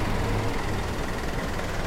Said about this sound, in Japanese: 車がたくさんあるので来るときは要注意